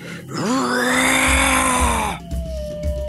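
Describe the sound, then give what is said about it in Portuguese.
A man draws two axes and lets out a single loud, sustained roaring yell with all his strength, lasting nearly two seconds, rising sharply then holding steady before cutting off, with a faint hum lingering afterward. “ele saca os dois machados e grita com toda a sua força.”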